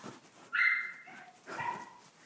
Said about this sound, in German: Ist ein aufgeregtes Bellen übrigens.